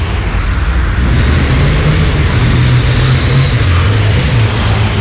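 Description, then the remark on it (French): A loud engine roars steadily for several seconds, its low rumbling pitch rising and dipping slightly, as Jean Gab rides by on his new motorcycle, with no voices. “Regardez, c'est Jean Gab avec sa nouvelle moto.”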